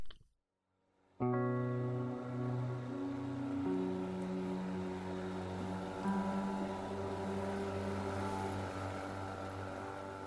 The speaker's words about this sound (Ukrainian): Три моторних човни повільно сунули на його гавань.